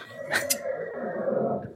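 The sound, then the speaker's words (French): A horse whinnies once, a sustained nasal, wavering call lasting under two seconds, with a breathy burst near the start, fairly loud with no talking. “Est-ce que quelqu'un peut s'occuper de mon cheval dehors”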